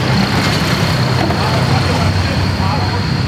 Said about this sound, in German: Ja, jetzt kommt noch ein Trecker.